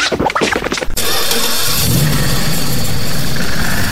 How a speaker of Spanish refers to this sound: Permiso concedido. Encendido de motores.